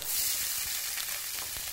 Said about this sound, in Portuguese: Ó, uma xícara de arroz, um fiozinho de azeite na panela, aquela refogada na cebola, pitadinha de sal,